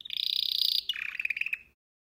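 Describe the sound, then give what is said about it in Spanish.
A small bird sings alone, first a high, rapid buzzing trill for under a second, then a slightly lower, pulsing trill of quick chirps that ends abruptly. “Cantando dijo un pajarito.”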